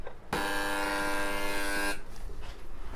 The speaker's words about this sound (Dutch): Ik hoop dat dit de goede bel is.